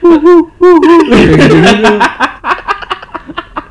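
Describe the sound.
A person imitates an owl with two quick, wavering hoots, then breaks into loud laughter and choppy giggling, with other voices joining in.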